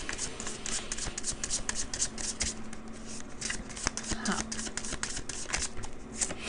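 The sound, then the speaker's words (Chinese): Tarot cards being shuffled and drawn for a tarot reading: a steady stream of crisp, papery riffles and flicks with sharp clicks scattered throughout, moderately loud and continuous for several seconds. “好，来，我们要来抽牌看看，说那宇宙塔罗牌给予你们这段关系什么样子的一个指引跟建议？”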